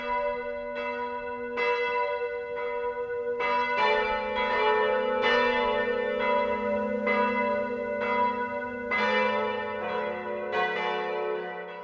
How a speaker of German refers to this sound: Es hatte auf jeden Fall mit dem Klang zu tun und mit Kirchenglocken.